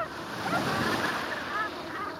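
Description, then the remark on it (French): Steady rushing wash of waves of the rising tide breaking on a mudflat shore, a continuous broad hiss that swells slightly, with a few faint chirping calls drifting over it and no talking. “Alors c'est la course, entre les bernaches qui chipent les algues dès qu'elles le peuvent et les vagues qui grignotent toujours plus de terrain.”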